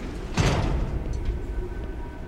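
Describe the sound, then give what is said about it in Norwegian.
A heavy security door, one of several doors and airlocks leading into the core of an Armed Forces department, slides open with a short, loud burst of air and mechanism noise, followed by a steady low rumble of machinery. No one speaks. “Vi går gjennom flere dører og sluser før vi kommer inn til hjertet i avdelingen.”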